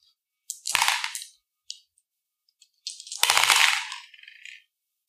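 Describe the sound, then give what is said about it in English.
Five dice are rolled for a charm roll, clattering onto a hard surface in two bursts of sharp clicking and rattling, a short tumble first and then a longer scatter that settles, fairly loud with no voices. They land on three threes, a one and a four. “Go ahead and give me a charm roll, but it's going to be minus one. So five dice.”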